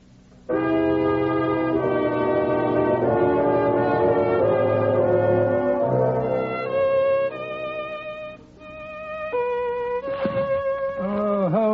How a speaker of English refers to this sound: will you put down that violin for a moment and pay attention? This is the third time since we got home that you've interrupted what I'm sure might prove a magnificent composition